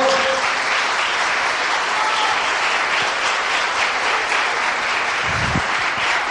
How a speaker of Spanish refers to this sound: pero denle ese aplauso al Señor, por favor.